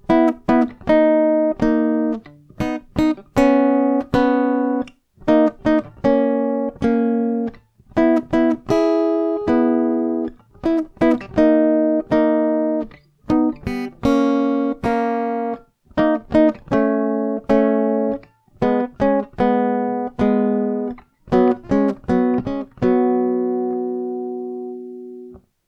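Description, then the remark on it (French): The melodic line of a theme played alone on an instrument without its bass notes, steady sustained notes with sharp attacks moving up and down in a flowing phrase, clear with no accompaniment or voices. “Si je joue la ligne mélodique seule, voilà ce qu'on entend.”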